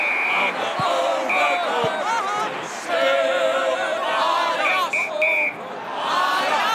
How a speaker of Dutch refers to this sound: Maar wat is dat nou? Je hoort de opgewonden reactie van het publiek hier in het stadion.